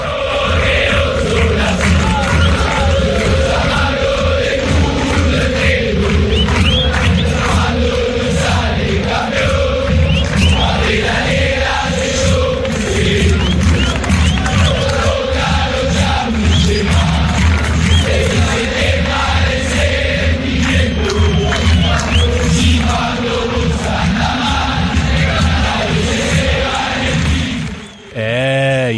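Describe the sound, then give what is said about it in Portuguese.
A massive crowd of River football fans chants a song aimed at Boca fans, loud and unbroken for nearly half a minute, the rhythmic mass of voices dropping away abruptly just before the end. “Então, na verdade, o que a gente tem que explicar aí, Cauê, que é importante explicar dessa versão que a torcida do River canta para a torcida do Boca?”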